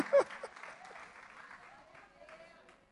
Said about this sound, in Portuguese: Pode aplaudir o senhor.